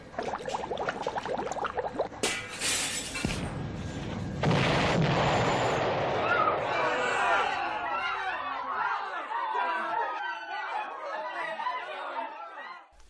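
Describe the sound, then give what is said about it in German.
A loud, booming explosion bursts out as a scientist's machine explodes in his laboratory during an experiment with radioactive chemicals, with a second heavy blast moments later, followed by a horrified audience erupting in alarmed chatter that carries on to the end. “Die Maschine ist explodiert und hat den Wissenschaftler mit den radioaktiven Chemikalien übergossen.”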